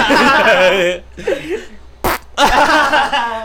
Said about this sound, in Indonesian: Kentut.